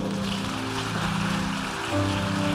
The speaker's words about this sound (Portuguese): Dá uma salva de palmas pro vô.